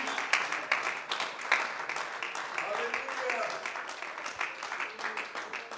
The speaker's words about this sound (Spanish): Puede brindarle ese aplauso solo para la gloria del nuestro Señor Jesús.